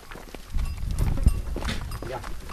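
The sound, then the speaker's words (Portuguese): A herd of goats moves past, many hooves scuffing and clattering on the ground in a dense, continuous shuffle with a low rumbling bustle. “cá estão todas. Quantas cabras é que tem?”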